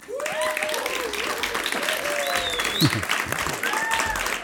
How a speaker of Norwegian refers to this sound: Applaus.